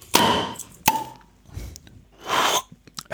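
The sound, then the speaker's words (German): A bottle of sparkling apple drink from Mecklenburg-Vorpommern being opened: a sharp pop, a second quick pop, then a short burst of fizzing hiss as the gas escapes, with no voices. “Und jetzt wird man schon das Besondere hören. Man wird, es, man wird es hören. An diesen Flaschen.”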